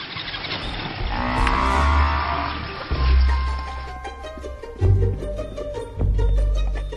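A herd of buffalo lowing, with deep, drawn-out moos rising and overlapping over a steady low rumble, a few louder calls standing out near the end. No one speaks.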